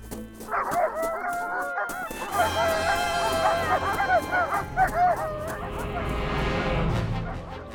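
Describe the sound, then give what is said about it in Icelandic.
Several dogs bark and yelp excitedly, their calls overlapping in a continuous, frantic chorus that stays loud throughout, over a dense, noisy background. “Baba Jaka sendi fyrst hundan á eftir þeim.”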